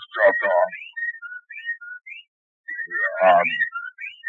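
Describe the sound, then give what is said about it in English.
Whippoorwills calling together outside a study window, two loud clustered bursts of rapid, overlapping cries with thinner whistled chirps scattered in between, clear, with no talking. “the the whippoorwills began to cry in unison outside the study window.”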